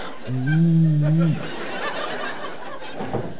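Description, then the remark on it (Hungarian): A man imitates the engine of an old tuned-up American car with his voice: a low, steady, buzzing drone held for about a second, followed by breathy, noisy sputtering that trails off. “Természetesen egy öreg tuningolt amerikai verdába ülünk. Ilyen hangja van.”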